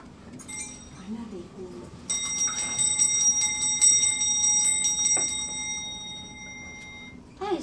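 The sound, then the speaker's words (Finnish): Bright metallic bells fitted to a horse pulling a sleigh jingle in a steady, shimmering rhythm for several seconds, ringing clearly before fading, as the sleigh travels at night to a Christmas church service. “Tämmöiset kellot oli laitettu siihen hevosen mukaan, että näin kauniisti ne soi koko sen matkan sinne joulukirkkoon”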